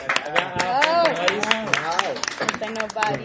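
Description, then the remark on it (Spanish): An audience claps steadily, with sharp, irregular hand claps running through the whole stretch while voices talk and call out loudly over the applause. “Y con el mismo aplauso recibimos también sí, venga,”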